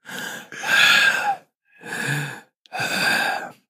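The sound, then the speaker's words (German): A voice imitates the heavy panting of a man hauling luggage upstairs: four loud, breathy puffs in an uneven rhythm, with short silent gaps between them and no talking. “Und du hörst dann immer so, puff, puff, puff, puff. Und dann so,”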